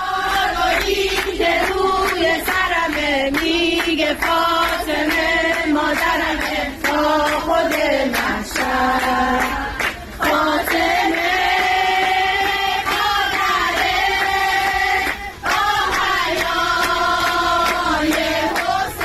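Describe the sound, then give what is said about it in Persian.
A group of Basij women sing an anthem in praise of compulsory hijab in unison inside a metro car, loud, their voices carrying a steady melody for the whole stretch with only brief breaths between lines. “خواهرای بسیجی جمع شدن توی واگن مترو و اونجا دربست گرفتن واگن و همه با هم سرودی در مده هجاب اجباری خوندن گوش بدین گروه سرود فاطمه کماندوهای مترو سواره الان که تقدیم میکند”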